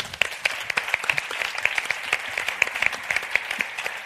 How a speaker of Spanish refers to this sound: Un aplauso para él.